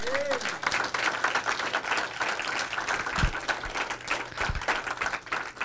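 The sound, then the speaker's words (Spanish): An audience bursts into sustained applause for the Lord, a dense, steady wash of many hands clapping at once, staying loud throughout with a few low thumps mixed in. “Aleluya, alguien puede aplaudirle al Señor.”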